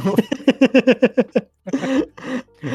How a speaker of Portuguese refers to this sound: Cara, ruim não tô. Acho que virou costume tossir, daí agora eu não paro mais.